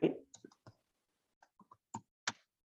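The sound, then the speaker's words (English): Someone types the name Mikhail Hradik into an online chat on a computer keyboard: a handful of sharp, irregularly spaced key clicks, fairly quiet, after a brief thump at the start, with no one talking. “I will actually write his name in the chat so that.”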